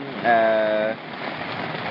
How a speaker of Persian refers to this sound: ما کم منتظر باشیم بارون بند بیاد